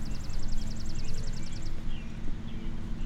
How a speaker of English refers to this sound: can you hear the birds? So one guy told me, if you hear the birds sing, don't worry about the rain. If they're out chirping, it means it's gonna be okay.